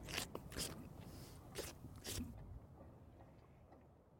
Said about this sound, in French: la maman vache passe ainsi de nombreuses heures à lécher son petit pour le rassurer, le nettoyer, mais aussi pour faire connaissance avec lui et lui témoigner son affection.